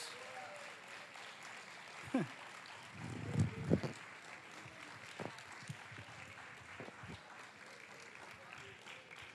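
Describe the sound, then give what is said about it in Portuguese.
A church audience applauds Jesus with a steady, dense patter of clapping that carries throughout, while a few louder voices or cheers briefly rise above it early on. “Você pode aplaudir a Jesus por isso, meus irmãos?”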